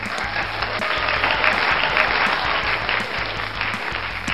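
Loud, sustained applause from a crowd welcoming a guest, a dense steady wash of clapping that holds at an even level for several seconds with no voices over it.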